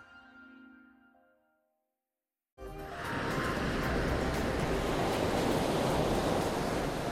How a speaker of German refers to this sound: Hier kann man wunderbar surfen. Aber diese Wellen, die plätschern nicht in Portugal, in Kalifornien oder auf Hawaii, sondern im fernen, fernen Osten Russlands auf der Kamtschatka-Halbinsel.